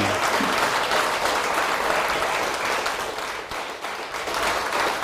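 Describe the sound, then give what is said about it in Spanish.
A large audience at a worship service applauds the Almighty loudly and steadily, a dense, continuous wash of many hands clapping that holds at full strength for the whole stretch with no voices rising above it. “Fuerte, fuerte el aplauso.”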